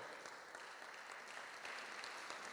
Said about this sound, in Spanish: Y si lo va a aplaudir, apláudale fuerte, porque el Señor quiere obrar en gran manera. Apláudale.